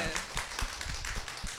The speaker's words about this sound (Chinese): 大家鼓鼓掌好不好？